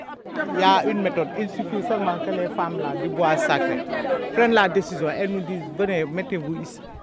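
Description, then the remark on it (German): A crowd of women argue loudly at a closed border in southern Senegal and Gambia, many overlapping voices shouting and talking over one another in a dense, agitated clamor that stays steady throughout. “Die Frauen sind wütend. Sie diskutieren laut und aufgebracht.”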